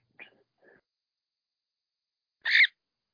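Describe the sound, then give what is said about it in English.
A pet bird calls three times: two faint, brief chirps close together, then after a pause a louder, harsher squawk. No one speaks. “Bird? Yep, that's my bird.”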